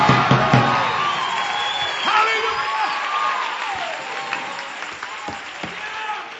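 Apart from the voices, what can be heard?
audience screaming and cheering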